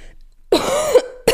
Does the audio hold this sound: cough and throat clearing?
yes